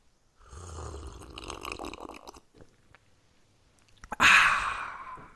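Wet mouth sounds of someone drinking a cool glass of water, a couple of seconds of swallowing and gulping, then a short pause and a loud, breathy exhale of relief.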